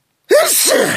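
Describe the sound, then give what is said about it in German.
A single loud sneeze bursts out of silence, a sharp voiced intake followed by a breathy, hissing release with no talking. “Das war eher so ein Zufallsnie.”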